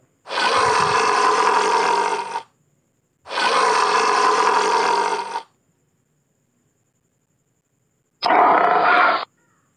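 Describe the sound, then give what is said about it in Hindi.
A lion caught in a hunter's net in a forest roars loudly, three harsh, rumbling bursts: two long roars in quick succession, then a shorter one after a pause, with no voices. “एक दिन हमेशा की तरह शेर शिकार की तलाश में जंगल में घूम रहा था और एक शिकारी ने उसे चालाकी से अपने जाल में फा जिससे शेर बहुत ही तेज दहाड़ने लगा”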